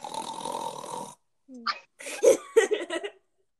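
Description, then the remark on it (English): A person vocally mimics a toy's breathing: a raspy, noisy inhale-like hiss, a short pause, then a few squeaky, snore-like puffs and breathy bursts, fairly loud. “I have like over a hundred of those breathing kinds. I only have one. And it also goes.”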